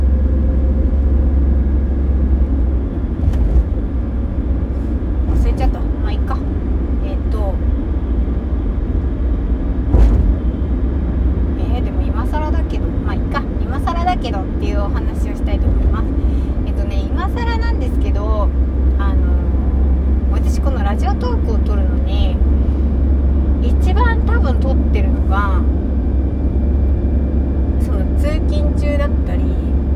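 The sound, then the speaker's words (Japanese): Steady, deep rumble of a car interior fills the background without a break, while a person talks into the microphone over the constant low hum, recording inside the car in the morning. “最初はその車の中スタジオって言って取り出した時は家の中で撮ってるといろんな音がしちゃうので、えー、と車の中で朝なんだろう起きて車の中で撮って配信してたんですけど”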